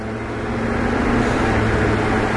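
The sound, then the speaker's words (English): Steady road noise from inside a car stuck in traffic, a constant low engine hum and broad rushing drone that stays at an even, fairly loud level throughout, with no voices. “Jesus Christ, bro, I'm fucking stuck in traffic like a motherfucker.”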